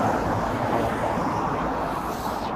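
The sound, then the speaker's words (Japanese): Steady, dense rumble of street traffic while waiting at a traffic light, a continuous wash of engine and road noise with some wind buffeting, no voices, holding at an even, fairly loud level throughout. “ちょっと今信号待ちなんで、ちょっとうるさいから。”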